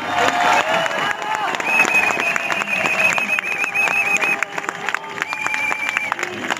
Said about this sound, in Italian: Grande, un applauso!